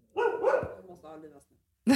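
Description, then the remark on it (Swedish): A dog named Itzy barks at things outside, including a motorcycle, in a few loud, sharp bursts with short pauses between them, and there may be some voices mixed in underneath. “Men det här att hon ska hålla på och skälla på allt som är utanför.”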